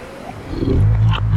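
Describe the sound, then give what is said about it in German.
A lion, walking sluggishly toward a man, growls in a low, rumbling drone that swells and holds steady for over a second, loud, with no voices present. “Ein Löwe geht irgendwie träge auf Ritz zu.”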